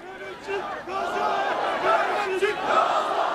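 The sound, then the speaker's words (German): Thousands of listeners at an Erdogan rally roar a chant in unison, 'Turkish military to Gaza'. Many voices shout together in a steady, rhythmic surge that stays loud and dense throughout, with no single speaker standing out. “Erdogan so indirekt mit dem Einsatz des türkischen Militärs im Gazastreifen gedroht hat und die tausenden Zuhörer, die Menge ähm, gebrüllt hat, türkisches Militär nach Gaza.”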